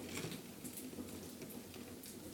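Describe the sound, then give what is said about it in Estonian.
Soft, steady crackling of a campfire at an RMK forest hut amid bogs and forests, with irregular small pops and snaps over a low rumbling hiss, continuous and fairly quiet throughout. “ja ainsaks eri ja heliefektiks, mida te kuulete tänases osas, ongi lõkkepragin.”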